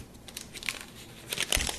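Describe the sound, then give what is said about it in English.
Papers rustle and crinkle in quick, irregular bursts, with a louder crackling flurry near the end and no talking. “That being said, that being done, as we're sitting here in the chambers, it is time to rustle the papers.”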